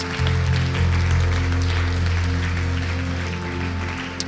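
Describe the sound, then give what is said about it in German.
An audience claps during worship to celebrate Jesus, steadily for about four seconds, a dense, even wash of applause layered over sustained low musical tones that hold underneath throughout. “Lass uns noch einmal einen Applaus geben, Jesus feiern für das, was er getan hat.”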